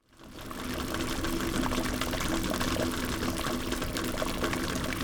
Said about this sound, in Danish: Det syder og bobler i det indre København. Sådan rent bogstaveligt. Herinde i en baggård i Købmagergade er en stor gryde i kog. Et hav af dampbobler er i vild bevægelse. De bruser opad fra grydens indre i en konstant strøm